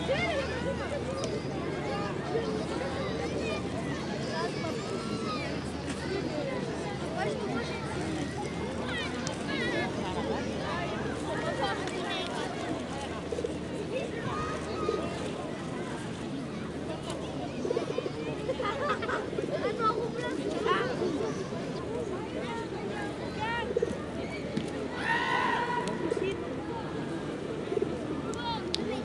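Beach ambience at the Plage des Catalans in Marseille, France: a steady murmur of many people chatting at once, overlapping voices without a single clear speaker, over a constant low wash, with a few brief higher chirps near the end.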